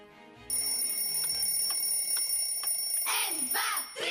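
A clock ticks steadily, about five crisp, evenly spaced ticks over a thin high-pitched hum, before brighter, louder swelling sounds take over near the end.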